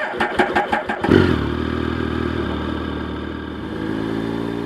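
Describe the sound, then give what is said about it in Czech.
A motorcycle engine cranks with a few quick rhythmic turns, then fires up and settles into a steady, throaty rumble with a slight rev toward the end. “O cestě Dominiky Gavličkové na motorce přes celé Japonsko jste určitě slyšeli.”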